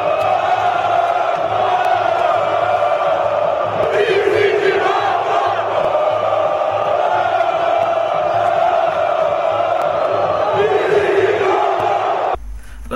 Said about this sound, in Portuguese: E eu não poderia deixar de colocar no ar é, um grito da torcida, na verdade da torcida do Flamengo, que virou símbolo é, de uma supremacia de uma equipe sobre seu rival.